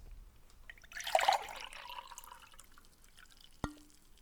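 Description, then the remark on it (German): Water is poured into a drinking glass to refill it: a short burst of liquid splashing in, a bright gurgling pour lasting about half a second, followed by scattered faint drips and a single sharp clink near the end. “So, jetzt kommt der Auffüllmoment.”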